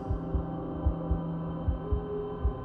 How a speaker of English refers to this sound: The house shook and my heart pounded in my throat. The house remained silent, all except the sounds of my beating chest.